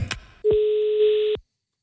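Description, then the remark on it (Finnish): A telephone ringing tone sounds once, a steady, clear electronic beep lasting about a second, preceded by a brief click on the line, then silence, as a call is placed to a rock musician. “meillä on puhelinnumero tossa, niin... Mm. Pistähän kuule menemään. No, kokeillaan.”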